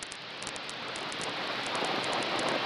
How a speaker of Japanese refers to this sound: ああテレビがあらあら電波が良くないのかしら